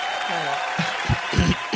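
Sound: applause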